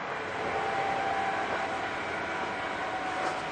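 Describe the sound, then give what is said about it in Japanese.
A Seibu 40000 series S-Train commuter train running between Hannō and Shibuya, heard as a steady, unbroken rumble with a faint high motor whine riding on top, constant in loudness throughout, with no voices. “西武40000系(Sトレイン) 飯能〜渋谷”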